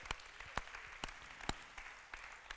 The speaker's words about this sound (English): If you're thankful for that, you ought to just clap your hands to the Lord. I'm thankful.